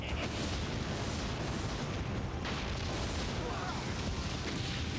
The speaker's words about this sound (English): Did you see? I mean, this that's Japanese footage, but did you see how the fire, the flames paused for the explosion effect?